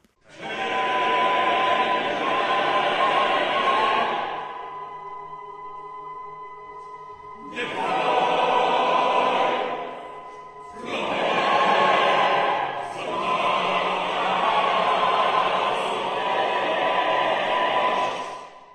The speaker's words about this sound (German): Die Aufführungen laufen schon und man ist bereits beim fünften Tag angekommen und bisher klingt die Oper zum Beispiel so.